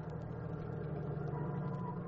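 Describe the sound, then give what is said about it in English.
A truck's heavy engine idles steadily after pulling up at a street corner, at night, in a deserted, pitch-black section of town by the river. Its low, even rumble drones without change for a couple of seconds, with no voices. “At 7:20 sharp, a truck pulled up at the corner.”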